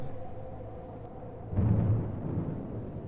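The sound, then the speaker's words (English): Low, rolling thunder from an approaching storm rumbles steadily, then swells into a heavier, louder roll about halfway through before easing slightly. It sounds continuous, with no voices present. “Hmm, seems to be another storm coming.”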